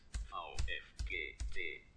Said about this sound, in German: Tastaturhilfe an. Und jetzt kann ich entsprechend die Tasten drücken.